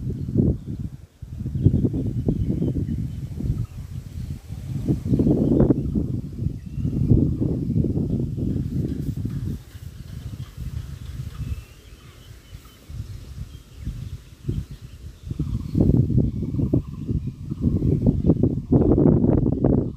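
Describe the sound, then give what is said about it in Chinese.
Wind buffets the microphone in deep, rumbling gusts that surge and ease unevenly, a loud, low roar that continues steadily with brief dips and no voices heard. “这样的风声其实录音并不是很合适。”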